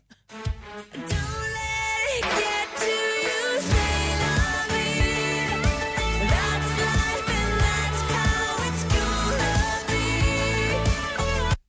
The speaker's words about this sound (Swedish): vi har här … som utger sitt album som heter … och lyssnar på den här låten